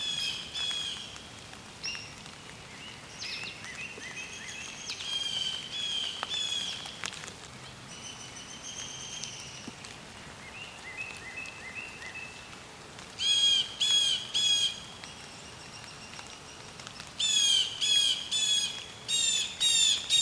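A hairy woodpecker gives high-pitched, squeaky calls, scattered at first, then in louder rapid bursts of sharp notes, with other faint bird sounds in the background and no one talking.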